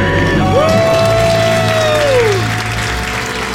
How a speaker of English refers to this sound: Count it down. Let's hear a debt free scream.